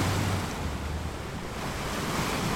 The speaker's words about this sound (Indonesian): Kapal yang dinaiki maling kundang pun terhempas ombak besar.